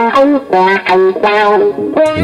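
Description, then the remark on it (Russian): An electric guitar played through a Cry Baby wah-wah pedal, its tone sweeping in a vocal, quacking way across a few loud sustained chords and notes, alone with no talking. “А есть звуки, там, квакушка какая-нибудь, край бэйби, который … придумал”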